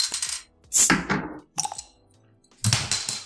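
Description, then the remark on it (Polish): A bottle of Łomża beer is pried open with a bottle opener: a series of sharp metallic clicks and clinks in several loud bursts, with a rattling clatter like the cap falling. “Nie to, że rzucam tym kaps kapslem, że go tak słychać bardzo, ale no po prostu brakuje trzeciej ręki, bo w jednej mam piwo, w drugiej mam otwieracz, no a trzecia by się przydała, żeby złapać kapsel.”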